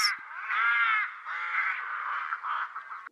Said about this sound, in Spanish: Levantó los ojos y con gran espanto vio contra el cielo azul siete cuervos negros que volaban sobre la casa.